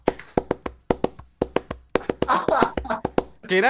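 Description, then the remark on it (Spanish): Hollow clip-clops from coconuts split in half imitate a horse's trotting hooves in a quick, steady rhythm of sharp knocks, with a voice chiming in over the last stretch. “van unos tipos con unos cocos para emular el ruido del caballo”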